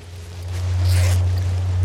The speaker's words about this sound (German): Henry öffnet den Reißverschluss des Zeltes.